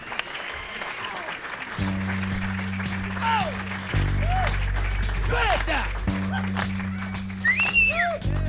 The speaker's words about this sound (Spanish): Os ponéis por aquí un aplauso, por favor. Un aplauso fuertísimo.